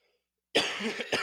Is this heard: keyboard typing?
no